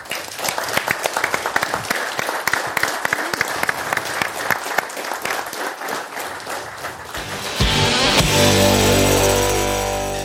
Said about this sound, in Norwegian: Stor applaus til